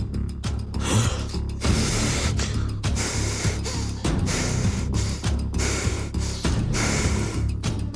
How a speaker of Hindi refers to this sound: उसे अपना वजन दुगना तिगुना लगने लगा डर के मारे सांस रोक के वहीं खड़ा हो गया और फिर अचानक से हाफते हुए सांस लेने लगा